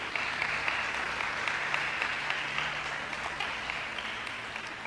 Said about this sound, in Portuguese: Dê a melhor salva de palmas para Jesus.